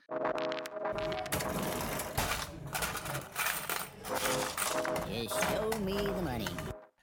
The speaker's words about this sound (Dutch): Ik ben het net aan het typen.